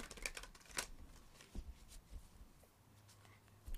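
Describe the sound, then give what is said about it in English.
Soft, quick riffling and flicking of cards being shuffled by hand, a few brisk bursts followed by quieter rustling, with no one talking. “Just going to shuffle it a little bit.”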